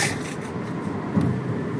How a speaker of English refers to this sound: we're driving in a Chevy Cruze. We've been in those before. Yeah, we have. Uh, Chevy's little four door sedan, decent sized truck, and uh, nice gas mileage.